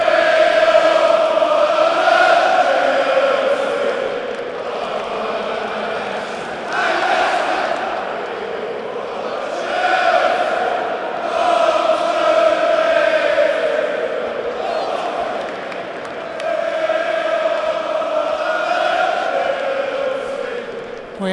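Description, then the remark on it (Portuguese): A large crowd of Chelsea football fans chants a traditional Chelsea club song, "We are following the Chelsea", in unison, loud and sustained, the melody rising and falling in repeated phrases with hardly a pause throughout. “Porque é muito típica do Chelsea, né? We are following the Chelsea.”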